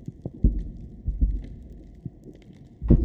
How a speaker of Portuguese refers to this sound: o som que o mero faz, e que nós costumamos chamar de boom. Esse som é muito parecido com um forte estouro, como a dinamite